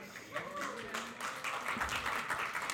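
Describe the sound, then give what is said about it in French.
A church audience applauds with steady, dense clapping that holds at an even level throughout, with a few voices and murmurs mixed into the crowd noise. “Merci d'applaudir. Vous pouvez vous applaudir de ce que vous applaudissez.”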